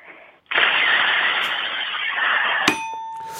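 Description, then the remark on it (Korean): A person does a vocal impression of an electric rice cooker releasing steam: a loud, steady hiss rushes out for about two seconds, then cuts off with a sharp click and a short ringing electronic tone. “아, 전기밥솥, 진기배출 소리 아, 전기밥솥은 뭐 집에 다 있기 때문에 매일 듣는 네, 네네.”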